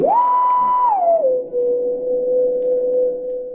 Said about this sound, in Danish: Og det, der sker rent fysisk og sonisk, det er, at hvis pladetallerkenen kører rigtig langsomt, så den tone, jeg har lagt på, den bliver lige pludselig transponeret helt vildt dybt.